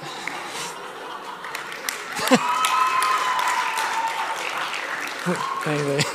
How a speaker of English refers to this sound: I, I love it that the only time I get applause is with an Anglican joke. That's like, what is the world coming to?